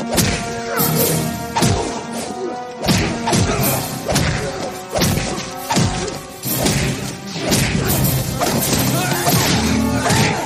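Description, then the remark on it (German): Staged fight sound effects from the TV series Walker, Texas Ranger: a loud, rapid barrage of punchy thuds, smacks and crashes in quick succession, with swishing movement sounds mixed in over a busy musical backing, continuous. “jede Bewegung wird mit einem, mit einem Windrauschen begleitet”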